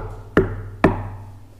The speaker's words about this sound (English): Well, after a few trials and some wrong turns, he, he finally gets to the wicket gate and he knocks on it.